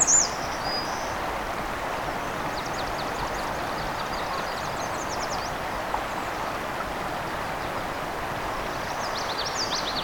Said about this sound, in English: Oh, indigo bunting. There's that fire, fire, where, where, here, here, put it out, put it out song.